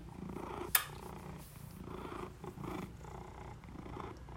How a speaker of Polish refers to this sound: Ciekawa jestem, czy to będzie słychać. Miał być odcinek o zwierzaczkach, więc zaczynam od mruczenia kota. To jest jedna z tych rzeczy u kotów, które w sumie lubię. Mruczanko. Mruczanko.